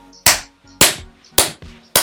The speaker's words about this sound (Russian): Это мы проверяли связь, чтобы, знаете, нужно похлопать, чтобы на другой стороне на звуковой диаграмме отображалось.